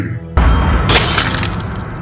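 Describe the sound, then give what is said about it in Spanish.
A sudden loud crash of breaking glass as a beast falls through a skylight, with a bright burst of shattering that keeps rattling and spilling on for a second or more, harsh. “En eso, por el tragaluz, cae una de esas bestias.”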